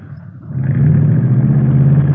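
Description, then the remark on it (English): A custom hot rod built mostly from salvage-car parts, with Mallory ignition, milled heads, twin Wakefields and 120 horsepower, is started; its engine catches and climbs into a loud, rumbling rev, its deep throaty roar steady for the rest of the moment. “Mallory ignition, milled heads, twin Wakefields. Here, let me start it up for you.”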